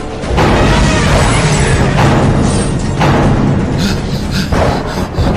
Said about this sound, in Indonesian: Ia pun segera meloncat ke tengah-tengah pasukan gajah. Gada Bima mengayun ke pasukan-pasukan gajah dan seketika menimbulkan suara keras bagikan petir menyambar bumi.